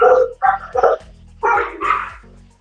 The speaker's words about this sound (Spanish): Ay, perdón, se escucha muchos ladridos. Ay, es que es en vivo el programa.